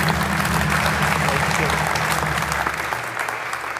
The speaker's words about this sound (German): Euer Applaus.